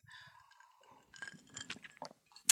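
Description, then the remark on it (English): Quiet handling sounds with soft chewing-like noises in a bedroom, then a few light glassy clinks and taps from a glass of Baileys near the end, ending in one sharper, brighter clink. “I did grab myself a Bailey, so if you hear a little bit of clinking, that's me.”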